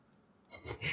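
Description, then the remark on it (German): Dice rattle and tumble, two short scratchy bursts after a moment of near silence, the second one louder. “Warte, ich würfel mal kurz.”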